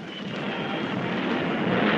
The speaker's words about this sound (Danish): Overhead, Germany's new warplanes fly in salute to Goering as Commander-in-Chief of the Air Force.